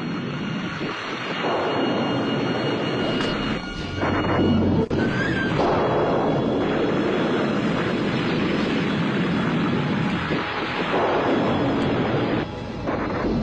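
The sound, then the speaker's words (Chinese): Heavy thunder rumbles continuously and loudly over a mountain village (Shanbei Village, Gezhuping Township), a deep rolling roar with a sharp crack partway through, then swelling and ebbing again. No voices. “那只有一个，那就是马上又要打雷，而雷声一过，那不知道谁家的谁谁谁又会被雷电不幸给击中，轻则伤残，重则丢了性。”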